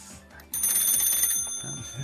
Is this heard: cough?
no